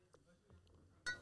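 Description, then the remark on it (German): Glasses clink together once in a toast, a bright, ringing chime right at the end after a quiet moment with faint background sounds. “Prost. Auf dich, mein Freund.”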